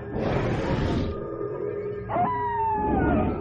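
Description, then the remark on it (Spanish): Animal roars, howls and other unsettling noises echo from a distance across a dry, hot landscape of acacias, shrubs and sandy paths, overlapping in a steady, unsettling chorus with a long rising howl toward the end. “Se escuchaba a lo lejos un rumor confuso de rugidos, aullidos, y otros ruidos inquietantes.”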